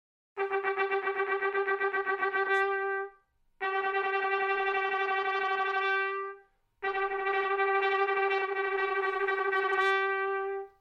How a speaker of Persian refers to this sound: ببینین چقدر این روش توی اجرای نوتا تغییر میکنه چیزی که میشنوین صدای ترامپت با زبون زدن تکی دوتایی و ستایی به ترتیبه